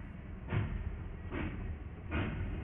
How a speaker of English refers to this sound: The train is moving.